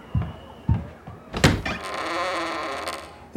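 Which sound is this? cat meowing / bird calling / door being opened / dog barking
door being opened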